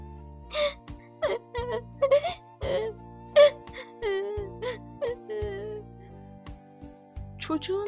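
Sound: child crying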